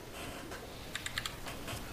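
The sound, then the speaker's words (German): A short burst of four or five quick, crisp, fairly quiet computer clicks as digital dice are rolled for initiative, against a soft background hiss with no one talking. “Ich hätte niemals auf diesen D&D Beyond Würfel klicken sollen.”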